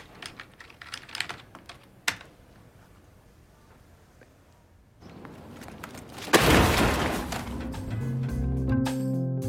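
Rapid keyboard typing gives way to quiet, then a computer is hurled into a dumpster with a loud, close crash, followed by a sustained noisy rumble and clatter.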